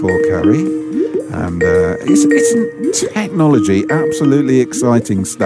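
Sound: skype call ringing tone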